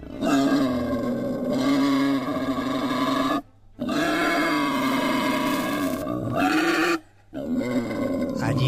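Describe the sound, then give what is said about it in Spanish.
Wild boars in Japan grunt and growl threateningly in loud, rough, sustained bursts, three long menacing calls separated by brief pauses, without any talking. “allí se les ve y se les escucha amenazantes.”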